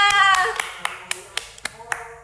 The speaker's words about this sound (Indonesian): Weh, tepuk tangan semuanya.